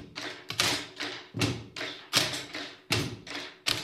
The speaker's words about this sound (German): Die Stifte brauchen die Buben und Mädchen heute nicht zum Schreiben, sondern zum Musikmachen. Auch mit kleinen Stiften kann ganz schön laut getrommelt werden.